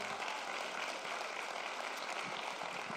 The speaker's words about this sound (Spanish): Te puede dar un aplauso si usted lo cree.